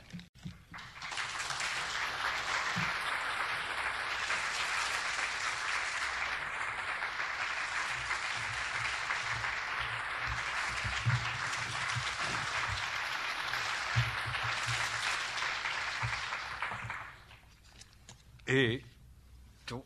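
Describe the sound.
Sustained applause from an audience welcoming the day's lecturer at the start of a seminar, a dense steady crackle of many hands clapping for about sixteen seconds before fading out, followed by a brief pause and a short burst of voice.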